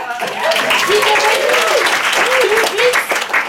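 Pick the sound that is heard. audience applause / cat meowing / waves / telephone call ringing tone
audience applause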